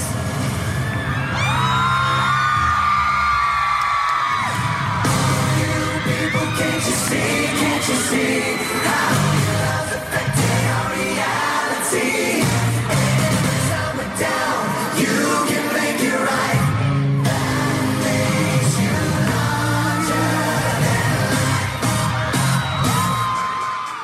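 A huge crowd of women at a show screams continuously and loudly as a boy band comes out, high-pitched shrieks and whoops layered into a dense, sustained roar with occasional sharp bangs, filling the whole stretch without letup.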